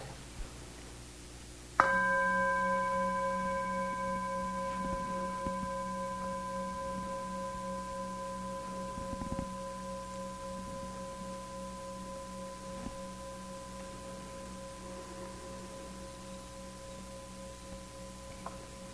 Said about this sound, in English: Now listening at the ear door to sound. See how how the Vedana might change. Is there any difference in how perhaps the sound of the bell is perceived?